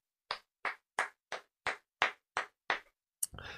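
About eight slow, evenly spaced hand claps in a steady rhythm, then one sharp clap followed by a short burst of noisy, rustling sound. No one speaks.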